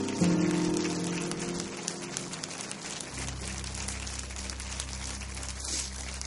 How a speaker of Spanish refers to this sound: Déselo más fuerte. ¿Por qué no nos ponemos de pie y le damos un aplauso al Señor? Porque Dios sigue haciendo milagros y Él es poderoso. Él es bueno, amén. Déselo fuerte a Él.